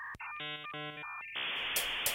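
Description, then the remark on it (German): A 1990s dial-up modem connecting: brief dial tones and steady beeping handshake tones give way to a loud, harsh hiss of static, with no one talking. “Es beginnt mit dem typischen Sound eines Modems aus dieser Zeit.”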